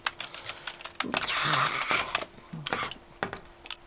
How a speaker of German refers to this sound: Ich schreibe jetzt weiter meine E-Mails. So. Gut, dann schreibe eben. Ich bitte dich nur darum, ein wenig leiser zu tippen.